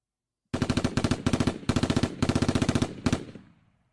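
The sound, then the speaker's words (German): Rapid automatic rifle fire in several sustained bursts, sharp and loud with a fast even rhythm, like an M16 firing full-auto, ending with a short ringing decay and no voices. “Das klang gerade sehr nach Counter-Strike irgendwie. Ja. Nicht vernünftig. Ein M16.”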